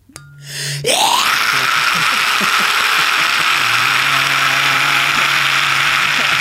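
A man lets out a loud, harsh war cry that bursts in after a brief low hum and holds as one raspy, strained shout for several seconds.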